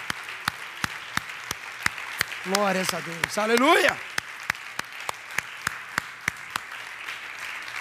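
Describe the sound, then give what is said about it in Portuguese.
Steady, evenly spaced clapping at a church service, a strong applause to the Lord, with sharp beats at a brisk regular pace, while a voice briefly calls out over it in the middle. “Não, um forte aplauso ao Senhor.”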